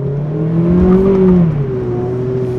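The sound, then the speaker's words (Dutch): The 2-litre four-cylinder 160 hp petrol engine of a Mazda MX-5 RF sports car test car revs steadily, its droning pitch rising and then easing back down over a couple of seconds, loud and continuous with no voices. “Maar met meer vermogen was deze auto nog een stuk spectaculairder geworden.”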